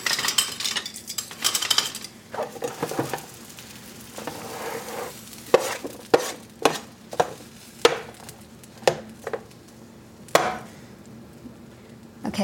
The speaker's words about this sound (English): Okay, so I'm going to take my chicken off the roasting pan and I'm going to take the grapes off the roasting pan and put them onto a serving platter.